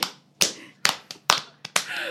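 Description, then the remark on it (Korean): About eight sharp hand claps at an uneven pace, most loud and crisp with a couple of softer ones in between, and no voices. “오늘 박수를 많이 치.”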